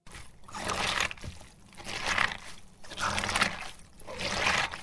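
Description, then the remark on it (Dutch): Shredded white cabbage being kneaded with 2 to 3 percent salt and some herbs to make sauerkraut: four rhythmic, wet squelching and crunching pulses, fairly loud, with no one talking. “Dit is het geluid van zuurkool maken.”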